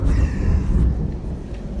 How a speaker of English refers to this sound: This chapter, excuse the thunder outside. It's a big one.